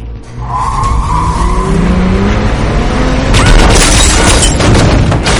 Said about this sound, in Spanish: Un coche sale del garaje.